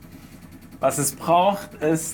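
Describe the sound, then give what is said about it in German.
The low, steady drone of a sailboat's engine hums quietly in the background throughout, while a man speaks over it in the foreground. “Wir sind auf einem Segelboot. Ihr hört aber im Hintergrund die ganze Zeit den Motor laufen.”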